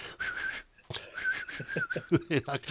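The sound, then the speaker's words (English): A breathy, airy attempt at a human whistle, a thin, wavering tone held for about a second, then a weaker try that slides into talking. “I mean, I can't whistle myself, but yeah.”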